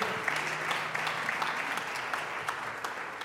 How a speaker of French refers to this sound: On peut les applaudir, ils ont été super. Merci beaucoup.